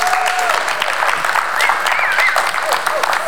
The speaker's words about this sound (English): Give them a good hand clap.